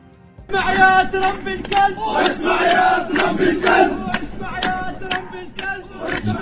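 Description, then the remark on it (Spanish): A crowd of protesters in the streets of Ramallah chants slogans against Trump in loud, rhythmic unison, many voices shouting together with steady force, punctuated by sharp bursts and occasional claps that continue throughout. “Y, mientras tanto, en las calles de Ramala, los manifestantes coreaban consignas en contra de Trump el perro, decían.”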